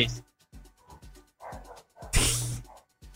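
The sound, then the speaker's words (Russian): A dog barks at fireworks in the background, a few short sharp barks at irregular intervals, with one louder, harsher burst partway through. “Да, собака лает на фоне на эти на фейерверке.”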